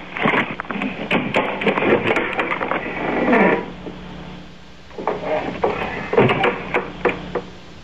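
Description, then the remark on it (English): A FedEx delivery person knocks at the front door of a home: a long run of rapid, sharp raps, a short pause, then another insistent burst of knocking. No one speaks. “Oh, it's my front door.”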